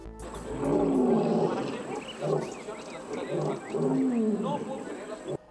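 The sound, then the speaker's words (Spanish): Big cats (lions, tigers and jaguars at a refuge in Mexico City) roar and growl in three deep, rumbling bursts, fairly loud, each swelling and then fading before the next one starts. “Este fin de semana, la Profepa y la Semarnat rescataron más de una veintena de leones, tigres y jaguares que se encontraban en condiciones verdaderamente deplorables en el supuesto santuario”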